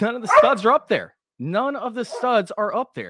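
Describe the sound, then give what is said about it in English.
Dogs being dog-sat bark in the background while a man talks steadily in the foreground, the barking partly buried beneath his voice. “And as you guys can hear in the background, sorry about my my barking dogs.”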